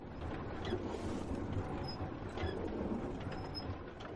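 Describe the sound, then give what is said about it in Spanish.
The millstone of a working water mill grinds in a steady, heavy rumble, continuous, with faint high creaks and squeaks riding over the low churning drone; no voices. “Esto que suena es la piedra de un molino trabajando, moliendo.”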